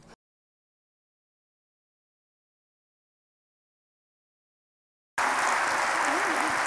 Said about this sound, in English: Get a round of applause.